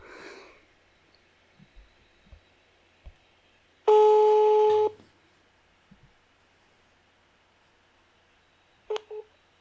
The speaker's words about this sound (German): Ich rufe sie jetzt an und mache auf laut.